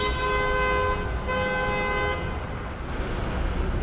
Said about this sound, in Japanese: クラクションが常になっています